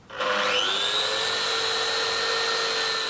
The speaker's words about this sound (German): Die Kreissäge ist schon von weitem zu hören.